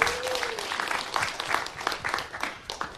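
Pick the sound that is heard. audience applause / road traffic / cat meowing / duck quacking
audience applause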